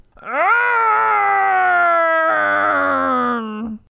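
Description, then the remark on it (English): A single voice lets out a long, loud zombie-like moan, from a zombie horde shuffling toward the front of the Pizza Bros store, that rises, holds with a brief catch midway, then sags lower before cutting off. It is strained and nearly four seconds long. “They moan.”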